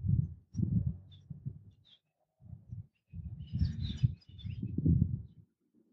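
Faint, scattered chirps from unseen birds, a few brief calls and a short cluster midway, half-buried under heavy low rumbling bursts of noise.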